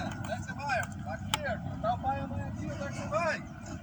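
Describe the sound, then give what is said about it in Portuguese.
A man yelling somewhere in the background, his raised voice rising and falling in repeated drawn-out calls over a steady low rumble of traffic. “Cara chato. Deu pra ouvir aí? Berrando.”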